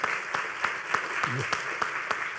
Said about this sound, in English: Give God a hand clap. Ready?